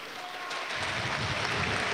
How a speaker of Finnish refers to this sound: Aplodit tulee kotiyleisöltä, kun Malk laittaa maskin päähänsä ja on valmis jatkamaan peliä.